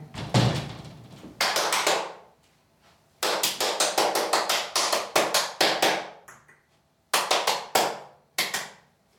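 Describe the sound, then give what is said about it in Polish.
A door is opened and closed, a series of sharp knocking, clattering thumps in several bursts with short pauses between, loud, with no talking. “Mogę otworzyć drzwi. Mogę zamknąć drzwi.”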